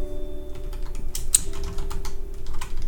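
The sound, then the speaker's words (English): Rapid, uneven keystrokes clatter on a computer keyboard, with a steady low hum underneath and no voices. “and I'm typing”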